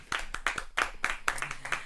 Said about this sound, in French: Allez, vas-y, ah, c'est parti, on l'applaudit, on l'applaudit, on l'applaudit.